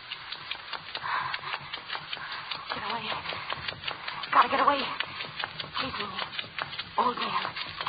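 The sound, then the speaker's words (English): A hand saw rasps through a skull, cutting the top piece off, in quick, uneven back-and-forth strokes, fairly loud, with a few heavier scraping pushes midway and faint vocal sounds underneath. “I cut the good strong white piece off the top and clean the brains away.”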